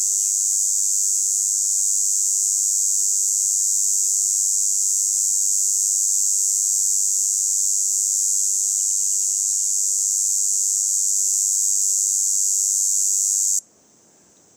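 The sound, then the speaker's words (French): Red cicadas in the Diwa forest, among oaks and Scots pines, sing in one loud, unbroken high-pitched buzz that holds steady for about thirteen seconds, then cuts off abruptly, leaving near silence. No one speaks. “Depuis 15 jours, elles chantent et on en entend partout.”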